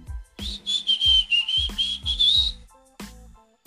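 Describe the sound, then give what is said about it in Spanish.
A bright, cheerful anime tune whistled clearly for about two seconds, the melody wavering up and down over a steady, thumping low beat, then stopping with a final thump. No talking. “Pero es con silbidos, creo. como...”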